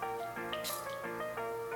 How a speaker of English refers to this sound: So we'll try the spot test now. We'll just put a little bit inside, like near our wrist. I guess like one spritz.